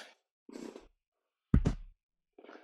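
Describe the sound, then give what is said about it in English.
A male cat scratching at a chair: a few short, rough plucking and popping bursts separated by silence, one louder and thumpier than the rest, fairly quiet, with no talking. “I apologize if you hear any um, noises, um, like a plucking noise, popping. Um, my cat is scratching my chair.”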